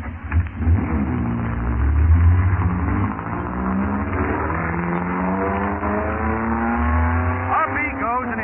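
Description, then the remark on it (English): The engine of a red snub-nosed race car, driven by a driver in a blue helmet, roars steadily on a track. Its pitch climbs in rising harmonic sweeps as the car accelerates to 50 miles, with a continuous loud mechanical drone throughout. “bobbing blue helmet like a streak in a red snub-nosed car. He's up to 50 miles already.”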